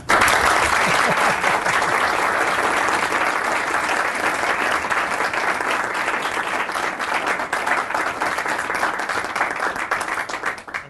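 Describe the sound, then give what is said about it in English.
Sustained applause from a sizable audience thanking three speakers, a dense wash of many hands clapping at steady volume for the whole stretch, bright, tapering slightly only at the very end. “First of all, we've got a great, we had a great opportunity here to have these three people, so could we thank them?”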